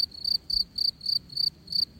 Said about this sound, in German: Wind in den Ästen. Ein Ast knarzt. Rascheln der Blätter. Vogelgezwitscher. Insekten. Es kreucht und fleucht.